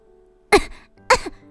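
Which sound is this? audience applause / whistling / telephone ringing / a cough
a cough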